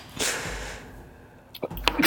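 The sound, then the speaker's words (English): A single sharp sneeze bursts out, a bright airy blast that trails off, followed a second later by a few quick breathy snorts and sniffs. “Bless you.”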